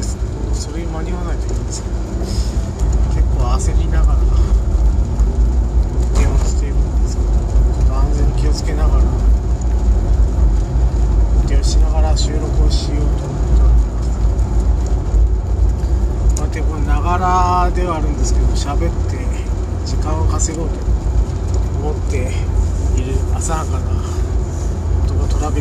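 Steady low engine and tire rumble inside a moving car, a constant heavy drone with faint shifting tones and light rattles over it, no voices.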